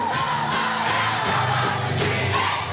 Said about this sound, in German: So hört sich das an, wenn ganz viele Kinder und Jugendliche zusammen singen. Immer nach dem Mittagessen wird das im Ferienwaldheim in Stuttgart-Degerloch so gemacht.